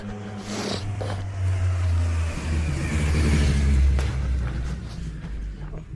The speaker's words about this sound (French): Bon, j'ai juste laissé passer une moto qui faisait un peu trop de bruit.